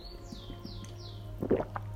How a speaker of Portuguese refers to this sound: Só um tinha que, que eu vou beber água.